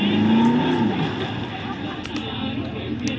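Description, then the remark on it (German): A video game car engine drones steadily throughout, its pitch climbing briefly at the start, while a person talks over the continuous motor hum as the car drives past power pylons and through many tourists. “Dann fahre ich jetzt hier so lang.”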